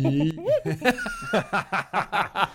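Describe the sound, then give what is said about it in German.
A voice imitates a hyena's whooping laugh, starting with a rising whoop and breaking into a rapid series of about eight rhythmic, cackling bursts, fairly loud. “Die Lache ist ja, ja gut, die machen ja so, so einen, so einen Hooping-Sound.”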